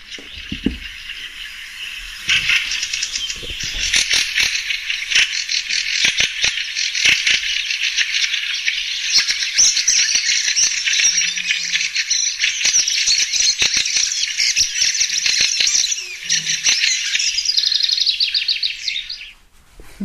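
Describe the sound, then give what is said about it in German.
A dense, continuous chatter of a colony of fieldfares calling at once, a harsh rattling din that carries on for about twenty seconds, with no talking. “man hört eher so eine Geräuschkulisse, ne? genau. als jetzt ein Vogel, der so prominent singt. Aber auch von weitem schon. Eher so ein Geschnatter”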